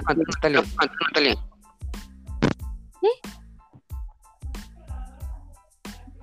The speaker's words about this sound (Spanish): ¿Tú escuchas eco? ¿Tú escuchas eco? Sí, yo también. Sí, yo también. Yo no ah, escucho eco.